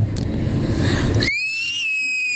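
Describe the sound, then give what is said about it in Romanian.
A child screams as if frightened: a harsh, noisy burst gives way to a long, piercing high-pitched shriek that holds steady and sinks slightly in pitch, loud throughout. “Așa, uh, revenind la treburile noastre, dădeam uh, țipetele copiilor care fac uh, în anumite moduri când se sperie și avem toate modurile, le avem în mesaje pe toate.”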